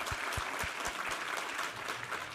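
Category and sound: crowd, audience applause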